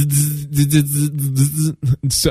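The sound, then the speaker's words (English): A voice imitates the interference buzz of the original iPhone's EDGE connection: a steady, droning hum broken by rhythmic pulsing bursts, loud, lasting about two seconds before trailing off in a few choppy breaths. “we don't get that little interference sound at all”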